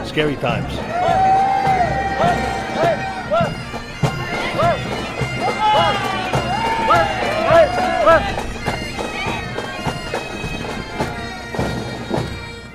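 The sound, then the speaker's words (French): A lively street parade crowd with floats, majorettes and men in kilts forms a dense, steady murmur of many voices. Children's high shouts and cheers rise above it again and again as they throw candies. “Le défilé commence. Chars, majorettes, hommes en kilt. Les enfants s'amusent à lancer des bonbons, les plus vieux à les attraper, chacun d'un côté de la vie.”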